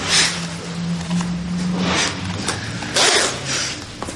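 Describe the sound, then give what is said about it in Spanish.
A jacket zipper is pulled up in several raspy, hissing strokes, each a short bright burst, with a low steady hum underneath and no talking, as a man zips up his jacket in a building doorway before leaving. “se sube la cremallera de su chupa y sale del portal.”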